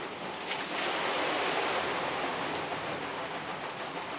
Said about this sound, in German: Schon rauscht das Wasser in eine hölzerne Rinne. Bis wir an der Mühle ankommen, ist auch das Wasser da und trifft auf das Mühlrad, das brav zu rollen beginnt.